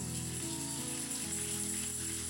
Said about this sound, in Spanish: Alguien dele un fuerte aplauso al Señor.